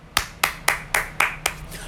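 Six sharp hand claps in a steady, fairly quick rhythm, crisp, applauding a bus driver, with no voices, just a faint low hum underneath.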